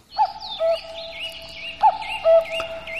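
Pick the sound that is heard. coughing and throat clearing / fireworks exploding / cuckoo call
cuckoo call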